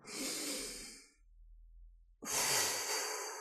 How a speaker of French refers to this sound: Quand vous vous mettez dans votre lit, mettez-vous au même endroit et prenez le temps quand vous vous allongez de prendre une grande respiration pour vous détendre.